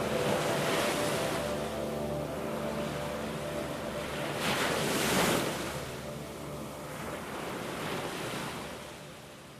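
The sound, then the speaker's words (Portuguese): Sea waves wash and break on the shore in a steady roar, with one louder surge swelling midway and a low rumble underneath. No one speaks. “O mar da nossa terra, maior e mais bonito que qualquer outro o consolo colo que só o mar, o chão, os cactos, as pedras da terra natal podem dar.”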